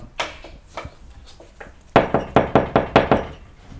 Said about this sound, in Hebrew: יהוזבד נפק על הדלת של יהורם.